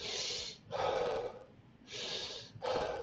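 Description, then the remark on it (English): A voice imitates rapid, heavy hyperventilating breaths during an attempt at being hypnotized: four quick, loud gusts alternating in and out in a steady rhythm, with no talking. “And what ended up happening was that I basically hyperventilated because mm-hmm. I was breathing, I was breathing”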